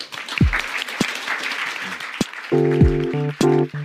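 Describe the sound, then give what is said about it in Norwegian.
Audience applause for the panel, a dense, steady patter of many hands clapping, with a few sharper claps, joined near the end by brief bursts of sustained tonal chords. “De fortjener en applaus.”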